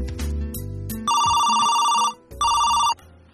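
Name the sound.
telephone ringing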